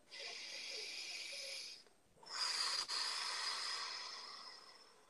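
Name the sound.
deep breath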